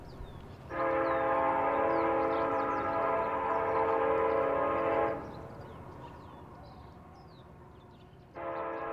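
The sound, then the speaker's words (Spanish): A deep, powerful freight train horn blows one long sustained blast at night in Mexico, falls silent for a few seconds over a faint outdoor backdrop with chirping, then sounds again at the end. “El potente pitido suena profundo y prolongado en la oscuridad. La bestia llega.”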